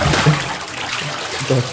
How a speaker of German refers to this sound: kommt ja. und schüttet dir so einen Eimer Wasser über den Kopf.